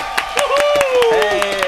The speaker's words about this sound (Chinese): 好，我们现在呢就是请到了另外一位红毯主持人，让我们掌声欢迎吕思纬。